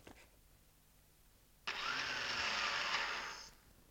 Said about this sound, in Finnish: osti täsmälleensä tällaisen porakoneen